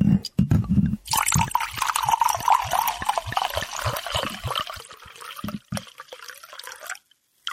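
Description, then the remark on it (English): A steady stream of urine trickles into a cup for about five seconds, its splashing tone rising in pitch as the cup fills, then breaks into a few final drips. A brief voice murmurs beforehand. “piss into the cup.”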